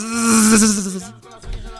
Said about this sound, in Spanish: Entonces venía la colmena, son muchas abejas, muchas hartas abejas venían volando, se oye.